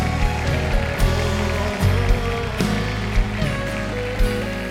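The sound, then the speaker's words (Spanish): An audience applauds loudly for the Lord during worship, a dense, steady wash of clapping from many hands, with faint sustained musical tones underneath and occasional sharper bursts. “Dale un fuerte aplauso al Señor.”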